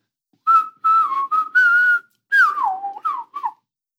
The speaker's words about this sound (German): Und dann die ein oder andere Amsel, weil die können auch imitieren, die machen auch Sachen nach. Ich habe mal eine geschickt bekommen, die hat dann so gemacht.